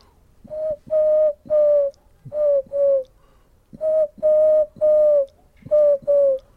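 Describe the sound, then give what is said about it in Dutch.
A wood pigeon's five-note cooing call, heard twice: three hooting notes followed by two shorter ones, with a brief pause between phrases. The cooing is clear, with no talking. “Dus de houtduif doet altijd vijf tonen.”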